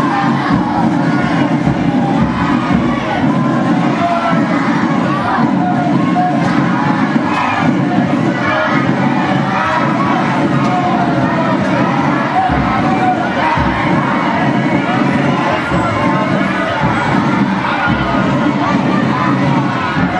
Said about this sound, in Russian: это впереди была колонна барабанщиков, а за ними идут еще вот масса, масса какие-то, просто масса детей, и что-то они еще и скандируют при этом.